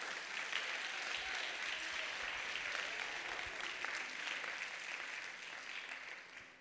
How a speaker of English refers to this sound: If you believe it, clap your hands and give him praise.